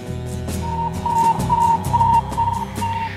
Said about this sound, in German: Ein seltsames, regelmäßiges Signal kann gegenwärtig im 15- und 7-Meter-Band mit Kurzwellenempfängern gehört werden. Es ist das Signal des gestern in Russland abgeschossenen künstlichen Erdsatelliten, der mit einer Kurzwellenapparatur ausgerüstet ist.